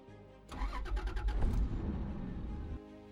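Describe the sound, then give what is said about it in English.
A luxury car engine cranks and roars to life, revving loudly for about two seconds before settling back to a low, steady hum. No one speaks. “Although it has the impeccable finish, safety features and class of the ultimate luxury car, Christianity offers you so much more.”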